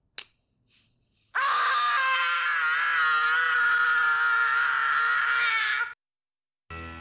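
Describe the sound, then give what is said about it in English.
A boy lets out one long, loud, piercing scream lasting several seconds after a sharp smack and a couple of short startled sounds, reacting to aftershave he has put on his face. “So that that was a reaction to aftershave that he put on his face, and from what I heard, apparently that wasn't planned.”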